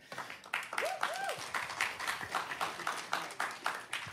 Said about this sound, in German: Dein Applaus. Wollen die dich, die wollen dir bestimmt nur Applaus geben, ne?